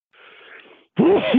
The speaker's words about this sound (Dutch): Ik moet even niezen, mijn excuses.